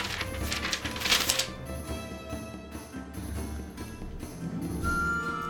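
Crisp paper rustling with a quick burst of flipping early on, then scattered soft crinkles and page movements continuing over a faint steady background hum.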